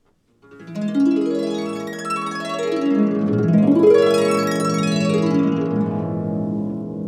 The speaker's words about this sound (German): Dadurch können wir dann eben uns auch Griffe vereinfachen oder diese berühmten ähm, Glissandi spielen, die dann sehr besonders klingen, wenn man zum Beispiel nur vier verschiedene Töne einstellt auf der Harfe.